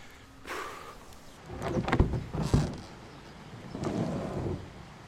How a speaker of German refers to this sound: So, jetzt muss ich das Boot 20, 30 Meter ziehen. Ums Wehr rum. Ganz schön schwer, mein Lieber.